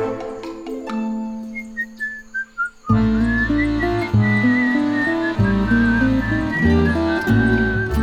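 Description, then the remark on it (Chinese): A bright whistled tune, a short series of stepping, falling notes, then carries on over a fuller musical backing with steady bass. No one speaks. “刺猬先生吹着口哨到菜园里摘了好多好多的红萝卜，准备要跟孩子还有刺猬太太一起享用大餐。”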